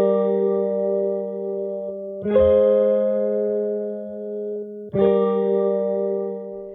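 A short instrumental passage of sustained, effect-laden tones over a steady low drone, with two fresh strummed attacks a couple of seconds apart and no voices.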